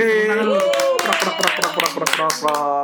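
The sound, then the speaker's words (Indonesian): A clapping sound effect: a run of sharp, rapid hand claps at an uneven rhythm, with a steady voice sounding underneath throughout. “Ini kita tepuk tangan orang-orang bener nggak?”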